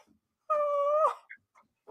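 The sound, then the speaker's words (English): A puppy whimpers once with a loud, steady, high-pitched whine lasting about half a second, then trails off into a few faint, short squeaks. “Ah, little 10x puppy.”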